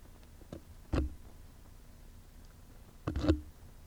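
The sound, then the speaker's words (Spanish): A Safe and Heal disinfectant device sprays to disinfect a microphone, giving three short, sharp bursts: a brief one, a stronger puff a moment later, then a longer double burst after a pause, with no talking. “Bueno, está desinfectado el micrófono en donde estoy hablando yo.”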